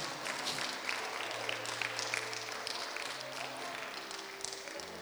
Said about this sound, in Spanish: Démosle un fuerte aplauso al Señor en esta tarde.